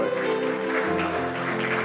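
An audience claps for the Lord in a dense, steady wash of applause lasting a couple of seconds, with sustained musical tones ringing beneath the clapping throughout.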